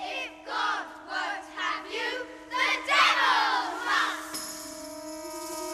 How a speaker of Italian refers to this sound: Addirittura cantano polvere alla polvere, cantano i bambini.